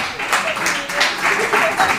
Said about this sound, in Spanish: Están aplaudiendo las rubias de lunares que están en la sala. Las rubias de New York.